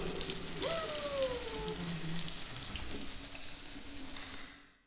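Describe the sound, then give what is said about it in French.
Water gushes steadily from a tap, fairly loud, with a brief whining pipe tone early on, then trails off as the flow stops; hair is being held under the running water. “Ma mère est vite arrivée et m'a passé des cheveux sous l'eau.”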